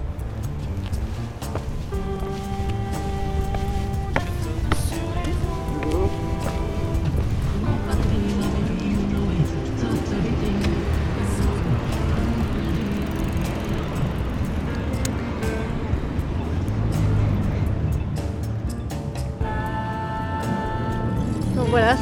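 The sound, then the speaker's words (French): Continuous street traffic: cars rumble past while a tram's tonal electric whine rises near the start and again at the end, with faint voices mixed into the busy roar. “c'est un, autre champ, hein. les bagnoles, les trams.”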